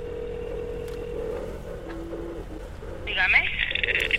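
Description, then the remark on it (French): A telephone call to a marina in Santa Cruz rings: a steady low tone and a brief lower beep, then a louder, buzzing high-pitched ring near the end, set against a faint background hum. “Ahora on passe au téléphone.”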